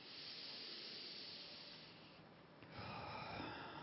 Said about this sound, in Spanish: Toma una respiración profunda.